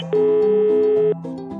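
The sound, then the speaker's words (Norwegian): A single steady telephone ringing tone sounds for about one second while calling, clear and fairly loud, with a low, soft musical hum continuing underneath before and after. “det er nesten ingen som svarer lenger når man ringer, men jeg ringer og jeg ringer”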